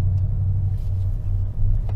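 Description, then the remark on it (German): Steady low engine rumble and road noise from inside a car driving along a street with parking strips along the sides and a van ahead, a constant drone with no talking and only slight variations in the hum. “und wir sind in einer Gegend unterwegs mit seitlichen Parkstreifen und vor uns fährt ein Transporter mit dem Rückspiegel, kein Auto.”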